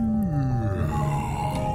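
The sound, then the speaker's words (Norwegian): A whale call: a low, drawn-out moan that slides steadily downward in pitch, rich with overtones, with a faint steady hum underneath and no talking. “Wikipedia sier at dette er en hval.”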